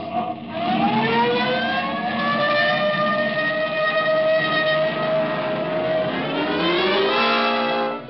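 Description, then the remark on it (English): A car siren wails loudly, its pitch sweeping slowly up and then back down in one long continuous cycle over a low engine rumble. “This time you can use the siren.”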